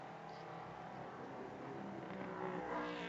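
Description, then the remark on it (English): The number 11 race car, driven by Thomas Merrill, drones steadily as it comes across the line, its roar swelling slightly louder toward the end as the car draws nearer on the track. “Here comes the number 11 car, Thomas Merrill, across the line.”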